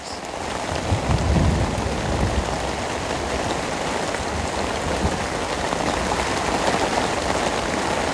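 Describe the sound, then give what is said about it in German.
Steady, dense rain pours down throughout a thunderstorm at a campsite, with a low rumble of thunder swelling early on beneath the constant patter. No voices are present. “Hier meldet sich der Donner nochmal.”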